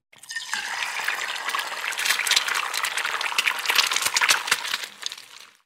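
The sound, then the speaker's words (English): A steady crackling sizzle of an egg frying in a hot pan, with dense hissing and popping that holds fairly constant for several seconds before trailing off. “It's an egg frying.”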